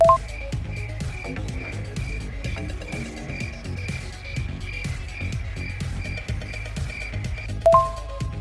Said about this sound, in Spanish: Se come esa chingadera que está haciendo ese ruido. Son grillos, no chapulines.